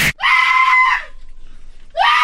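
Two loud, sustained screams, the first lasting most of a second and the second starting after a short silence, shrill and strained with a rising onset.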